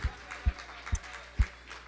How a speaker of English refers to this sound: Go ahead and clap your hands unto the Lord one more time. Hallelujah.